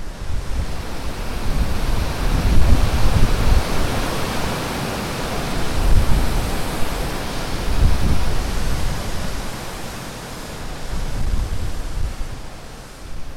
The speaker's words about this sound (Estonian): täna on see erakordne päev, kui Venemaa pool on avanud äh, veehoidla kaks lüüsi ja Narva koskedele voolab peale vesi ja Narva kosed vahutavad